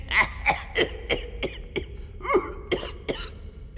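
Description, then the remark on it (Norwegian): A fairly loud fit of coughing from a person who has caught a cold: about nine short, harsh coughs in quick, uneven succession, with no talking in between. “Jeg ler ikke. Jeg, jeg hoster.”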